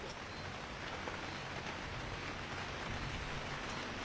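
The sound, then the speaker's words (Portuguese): Steady rain pours down with a dense, even hiss and fine pattering of drops, continuous, with no voices heard throughout. “Não vou pra chuva, né, meu querido?”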